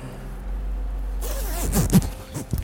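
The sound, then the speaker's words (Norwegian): A jacket zipper is pulled closed over a hidden microphone in a few quick, scratchy bursts, over a steady low rumble like an idling car interior. “Så jeg setter den her, for jeg tenker at hvis du bare lukker igjen jakka di, over sånn, så vi han se det.”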